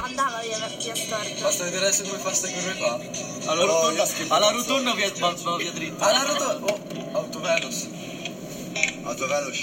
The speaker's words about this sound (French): Ça, euh, c'était les sons euh, des voix de cinq amis dans une voiture. Euh, vous avez entendu le bruit de la voiture, la radio, radio qui joue. J'ai l'impression que tout cela s'imbrique et se fond comme si c'était un seul son.